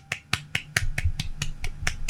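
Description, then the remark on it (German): About ten sharp, crisp hand claps in a quick, steady rhythm, with a faint low murmur underneath. “Ich kann gähnen und ich klatschen gleichzeitig.”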